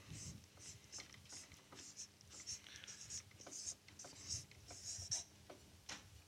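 A pen or marker scratches across a surface in quick, irregular strokes, fairly quiet, with brief pauses between bursts as a word is written out by hand.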